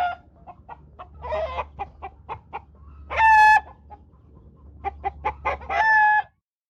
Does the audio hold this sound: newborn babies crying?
no